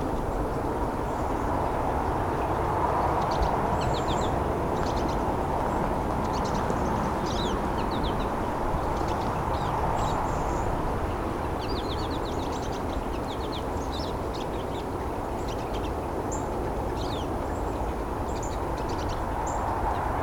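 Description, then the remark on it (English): A male pine siskin sings a long, rambling series of quick twittering chirps and trills, fairly faint over a steady low rumbling background noise, with no one talking. “That's the song of the pine siskin.”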